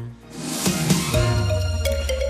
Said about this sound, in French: Et nous vous réveillons au son des sonnailles ce matin sur France Bleu Orléans. Euh, ces cloches qu'on met autour des vaches, moutons, puisque nous sommes en direct du Salon de l'Agriculture, porte de Versailles, à Paris,